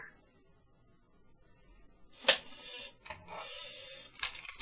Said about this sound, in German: Ich höre den Stuhl, der quietscht. Yeah. Ja, ich höre mich halt, der quietscht.